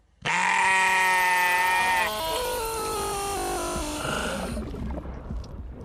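A loud, drawn-out sheep bleat with a wavering, harmonic tone, sounding alone for a few seconds before trailing off into a brief noisy tail, like a short sound logo.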